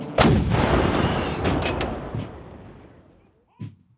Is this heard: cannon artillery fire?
yes